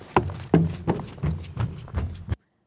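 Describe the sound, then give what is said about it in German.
Heavy footsteps thud across a wooden attic floor overhead, about seven steady, hollow-sounding steps in quick rhythm, loud, then stopping abruptly into silence. “Darauf folgt ein lautes Krachen und Schritte auf dem Dachboden.”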